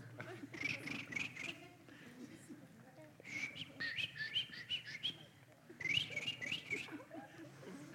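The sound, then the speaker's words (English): A voice mimics bird calls in three short bursts of high, chirpy tweets and whistles, each lasting about a second or two, with low murmuring sounds underneath. “That's how the birds go.”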